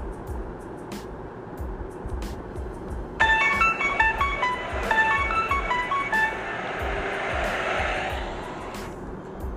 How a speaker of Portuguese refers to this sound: Logo cedo, ao acordar, ela olha para a janela e escuta o caminhão da coleta seletiva de lixo.